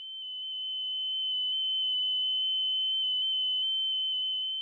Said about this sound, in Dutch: Het is nog niet duidelijk wat de oorzaak is van dit gefluit rond de 3 kHz. De auteurs dragen wat plausibele verklaringen aan, zoals kosmische straling van andere sterren.